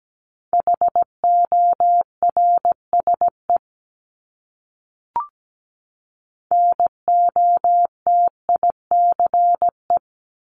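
Morse code sent at 17 words per minute, a word from a list of the top 500 words, as a steady mid-pitched beeping tone, keyed in crisp short dots and longer dashes at a brisk pace, with two groups separated by a pause and a brief click.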